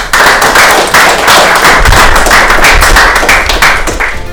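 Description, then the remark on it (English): An audience gives a round of applause for a business owner, a dense, loud patter of many hands clapping at once that holds at an even level for several seconds with no voices. “So, uh, round of applause for”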